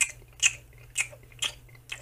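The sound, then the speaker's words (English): A voice imitates wet, squelching chewing: five rhythmic smacking bursts about half a second apart, fairly loud, with a low steady hum underneath. “You hear a rhythmic squelching, like a.”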